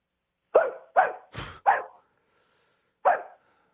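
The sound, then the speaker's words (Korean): A person's voice imitates a stray, ownerless neighborhood dog barking, giving three quick barks, a short huffing burst, another bark, then a pause before one final bark, fairly loud. “동네 돌아다니는 개 할게요. 동네 돌아다니는 주인, 주인 없는 개.”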